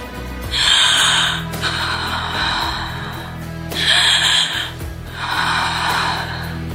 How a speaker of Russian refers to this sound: Появилось самостоятельное дыхание.